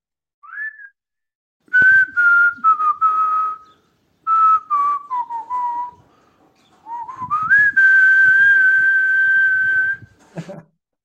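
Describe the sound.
A person whistles a song melody, clear sustained tones gliding and stepping in pitch across several phrases with short pauses, with no talking.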